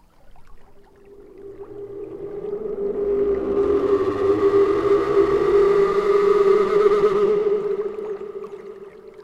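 Analog modular synthesizer feedback tones, made on the large system of M-studio in Stockholm: a steady, wavering drone with warbling overtones swells gradually from a thin start into a dense, loud wash, then thins out again toward the end.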